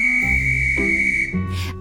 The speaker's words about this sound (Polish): Chwilę potem usłyszeliśmy gwizd i nasza podróż toczyła się dalej.